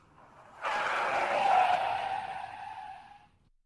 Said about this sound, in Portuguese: Tudo estava quieto, mas lá longe ouvia-se o barulho de alguns carros.